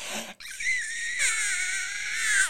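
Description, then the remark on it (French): A voice imitates the shrill, high-pitched scream of a chicken breast being cooked in the oven: after a brief breathy start, one sustained wailing shriek rises in pitch and holds for about two seconds, loud, with no talking. “Puis après ça, je la mets dans le four, puis j'entends crier la petite poitrine de poulet.”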